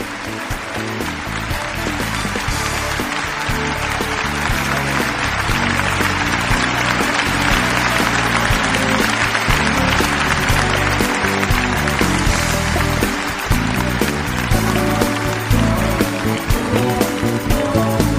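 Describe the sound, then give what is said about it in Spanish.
A large crowd claps steadily for the whole stretch as praise to God on a Christian radio programme, a dense, continuous wash of applause with music playing beneath it, staying strong and even from start to finish. “Que este aplauso fluya a manera de una alabanza que llegue hasta su misma presencia.”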